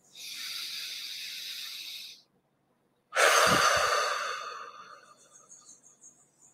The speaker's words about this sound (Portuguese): Toma uma respiração profunda.